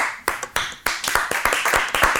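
A short burst of applause welcoming a singer and producer as a show guest: sharp, crisp claps in a quick, slightly uneven rhythm, about a dozen in two seconds, from what sounds like just a few pairs of hands, with no talking.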